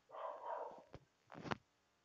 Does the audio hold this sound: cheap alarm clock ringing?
no